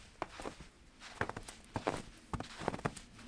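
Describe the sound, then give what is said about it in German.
Footsteps crunching through snow under shoe soles on a cold winter morning walk on Rügen, a steady walking rhythm of about seven or eight soft, grainy crunches over a few seconds, with no voices. “Das Knirschen des Schnees unter unseren Schuhsohlen durchbricht die Stille des Morgens.”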